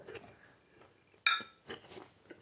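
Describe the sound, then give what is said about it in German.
A single bright clink of beer glasses touching in a toast, sharp, ringing briefly against a quiet background with faint murmurs before and after. “Jetzt ist schon wieder 10 Uhr, Prost. Trinken wir mal ein Bier.”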